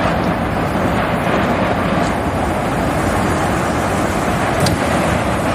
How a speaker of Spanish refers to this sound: Así sonaba este volcán, lo grabamos allí mismo, que posteriormente fue bautizado como Tajogaite. Todavía recuerdo el sonido cuando encendimos ahí la linterna en directo para que te hagas una idea, el ruido era muy similar al de un avión volando cerca